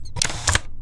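A Ricoh compact camera powering off: a brief mechanical whir with two sharp clicking bursts as the lens retracts, moderately loud and lasting about half a second, with no talking.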